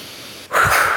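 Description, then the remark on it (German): A soft, airy intake of breath gives way after a brief pause to a forceful, loud exhale, a breathy rush of air that carries on to the end, as a person breathes in and then lets all their energy out in a breathing exercise. “Statt dass du jetzt einfach laut ausschnaufst, musst du einfach deinen Namen einmal laut rufen.”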